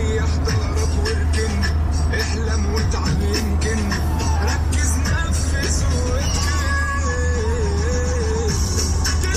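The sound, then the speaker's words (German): Inside a moving taxi in Cairo, Egypt, a steady low engine rumble fills the cabin while Egyptian street music of the Maraganat genre, a mix of electro, rap and reggaeton elements, plays loudly throughout, with a wavering, ornamented vocal melody over busy beats. “mit dieser Musik in diesem Taxi fahrt ihr dann zum Beispiel zu den Pyramiden von Gizeh ein Muss für jede Kairo-Reise, oder?”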